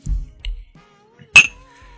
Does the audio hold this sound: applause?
no